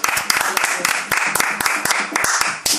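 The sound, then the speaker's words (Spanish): A brief burst of applause: a small group claps quickly and irregularly for about three seconds, sharp hand claps overlapping in a steady, fairly loud patter, with some murmured voices beneath. “Un aplauso.”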